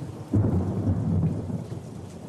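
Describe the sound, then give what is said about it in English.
A deep, rolling rumble of thunder swells and lingers over a steady, loud hiss of rain outside, with no voices. “And we hear we sort of hear the thunder and rain outside as they're about to leave”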